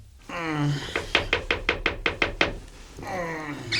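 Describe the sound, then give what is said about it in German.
A quick, even run of about eight sharp knocks on a hotel room door at the Emma, a cosy small hotel in central Rotterdam, loud and rhythmic, with voices speaking before and after the knocking. “Der erste Detektiv hatte sich gerade auf sein Bett plumpsen lassen, als es an der Tür klopfte.”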